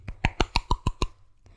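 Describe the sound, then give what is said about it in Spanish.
A voice imitates wet rubber flip-flops slapping while walking fast, making seven quick, evenly spaced smacking pops in a brisk rhythm, fairly loud, followed by a brief quiet tail. “Entonces cuando eso está mojado y te camina rápido es cuando suena así”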